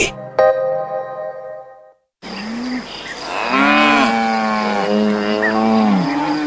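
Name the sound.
cows mooing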